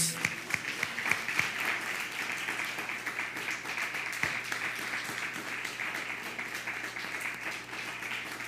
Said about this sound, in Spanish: Un fuerte aplauso a todos.